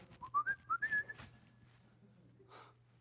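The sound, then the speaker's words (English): A person whistles a short, bright tune imitating a penny whistle, a quick run of rising notes ending in a held tone, fairly loud, followed by a brief breathy sound. “Four boys with penny whistles, you know, whatever.”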